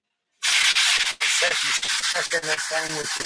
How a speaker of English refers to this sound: Anything spectacular? No, just sandblast. Better than grinding, I guess. Better than grinding.